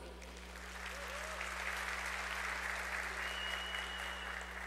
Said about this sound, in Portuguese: Palmas para você.